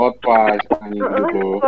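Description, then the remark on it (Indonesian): A voice mimics a squeezed rubber chicken toy, letting out two strained, squawking honks in quick succession, loud. “Itu suara ayam-ayaman karet yang dipencet-pencet.”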